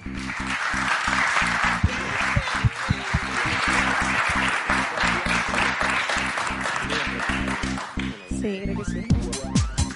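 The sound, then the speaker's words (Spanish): At the close of a moderated session, a crowd applauds with dense, steady clapping from many hands for about eight seconds, then the clapping thins out and scattered claps linger as it winds down. “y nada, un fuerte aplauso.”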